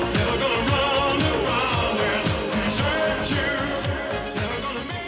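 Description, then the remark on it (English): An upbeat pop song plays loudly and continuously over the phone on a Michigan sports radio post-game call-in show as a bait-and-switch prank, with a steady thumping beat, layered synths and a dense, bright mix. No one talks over it. “Eric had this one song that had been on repeat, queued up to what he thought was the key moment”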